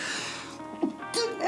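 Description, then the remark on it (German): A single sharp sneeze bursts out, a short intake followed by a hissy explosive release, with faint vocal murmuring around it. “Gesundheit.”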